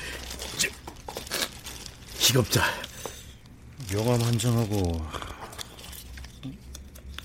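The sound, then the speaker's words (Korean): Dry crinkling of a plastic bag holding evidence being handled, a few sharp rustles in the first seconds, followed by a voice speaking and some quieter rustling afterward. “비닐에 담긴 이건 뭔가요?”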